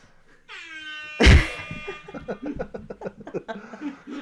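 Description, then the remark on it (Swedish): A loud horn toots for about a second, then a sharp burst hits, followed by a run of quick honks and chattering, laughter-like sounds. “ja, det är bra, du tuttar på den när du behöver säga någonting”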